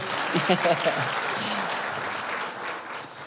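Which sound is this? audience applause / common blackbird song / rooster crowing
audience applause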